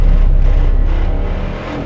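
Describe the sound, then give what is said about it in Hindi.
A car engine revs with a loud, low rumble during a car chase, holding steady for about two seconds before easing off slightly. No one speaks. “Hardy थोड़ी दूर chess के बाद गाड़ी हिल पॉइंट पर ही रोक लेता है”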